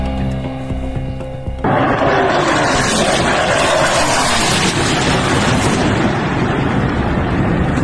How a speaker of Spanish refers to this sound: No, y precisamente vamos a mostrarles el estruendo de las nuevas explosiones en Kiev y otras ciudades de Ucrania, sacudidas por estos despiadados bombardeos rusos. Escuchemos.